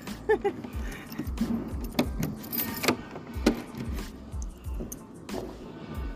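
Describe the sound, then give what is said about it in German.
A bunch of keys jingles briefly amid shuffling, thumping handling noises and faint background activity, with a short bright metallic rattle standing out near the middle. “Ich habe schon Schlüssel.”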